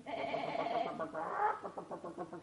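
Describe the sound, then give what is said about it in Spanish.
A ram bleats in two long, quavering calls back to back, fairly loud, with a trembling, pulsing quality and no other sounds around it. “Oiga, ¿quiere usted cambiar su gallina por mi carnero?”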